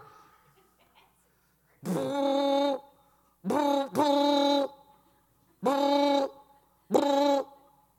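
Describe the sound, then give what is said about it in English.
A man's voice imitates the booming bass of another driver's car stereo blaring rap music, with five deep, loud, rhythmic vocal booms: one, then a quick pair, then another pair after a pause. No other talking is heard. “That wasn't the horn, friend, that was his bass. Had that rap music blaring.”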